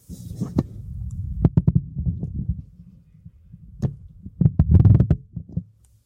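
Muffled thumps and bumps of a microphone being handled and repositioned to get it into place, with irregular knocks and rustling over several seconds and a louder cluster of taps near the end.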